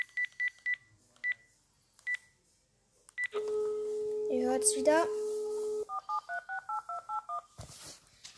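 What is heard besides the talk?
telephone dialing tones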